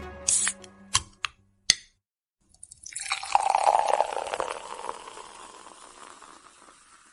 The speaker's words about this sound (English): In a cold box of wine, or pour something cold on ice because it's the Binge Watchers Podcast.